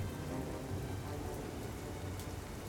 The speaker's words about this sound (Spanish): experimentó una tormenta tan violenta que sintió un pánico horrendo fue tal el terror que vivió durante ese momento que juró a Dios, tal vez de manera impulsiva, que si lograba salir vivo de esa tempestad inmersa en truenos, se convertiría en monje.